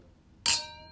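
A single bright clink of drinking glasses touching in a toast, fairly loud, followed by a clear ringing tone that slowly fades; no one speaks.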